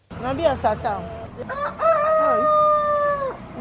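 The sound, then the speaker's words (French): A rooster crows with a long, sustained call, preceded by a burst of clucking and squawking from chickens at a poultry stand in Akobato, Cotonou, with stacked wire cages of ducks, turkeys, quails, guinea fowl, hens and roosters, and steady background noise throughout. “Plusieurs grillages superposés contenant des canards, des dindons, des cailles, des pentades ou encore des poules et des coques.”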